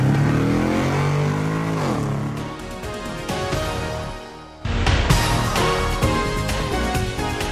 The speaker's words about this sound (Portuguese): Engata Primeira e acelera!